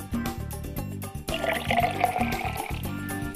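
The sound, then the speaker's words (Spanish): Rum, aged or white, is poured in a fine, steady stream over lime and ice in a glass for a Cuba libre, its splashing gurgle rising in pitch as the glass fills, with a soft rhythmic backing underneath throughout. “Ron al gusto, añejo o blanco, vertido sobre el limón y el hielo en un chorro fino que escurra sobre las rocas como una humedad, no como un diluvio.”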